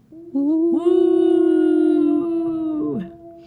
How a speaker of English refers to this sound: you will need to listen out for the wolf howl, and it sounds just like this.